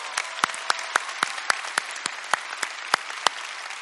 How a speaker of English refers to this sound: Uh, uh, let's give all the mothers and all the mothers in the military watching. Let's give all a big hand. God bless y'all.